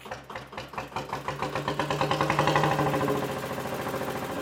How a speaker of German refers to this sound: klingt ganz deutlich nach Maschine. Ja, genau, das ist richtig Maschine. Ne? Da ist ein Kolben über 10.000 Kubik.